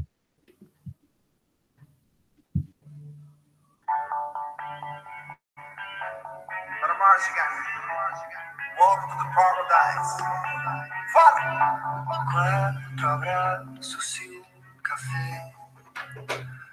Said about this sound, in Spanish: que es este cantante puertorriqueño que escribió esta canción eh, en un momento y pasado los años se reunió con otra persona, con otro artista, para hacer esta versión remix